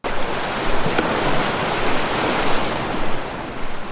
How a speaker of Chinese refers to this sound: 狂风暴雨、雷电交加中，货船被大海吞没，只剩下少年派在救生船里载浮载沉。